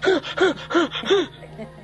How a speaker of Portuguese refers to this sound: É justamente outra respiração que eu, que eu acho que vocês devem fazer, porque é a respiração da sabedoria, da responsabilidade da escolha final.